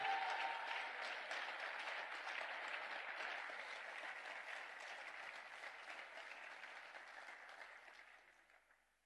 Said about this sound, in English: Just by faith, clap your hands and appreciate God. God is doing.